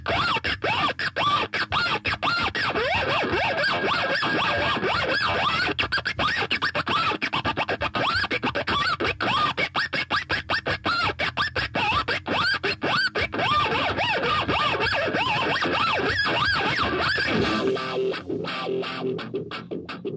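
A cheap, poor-quality electric guitar, distorted, plays on its own for about twenty seconds, raspy and noisy with scratchy, scraping textures and choppy, stuttering bursts, loud throughout before thinning out near the end.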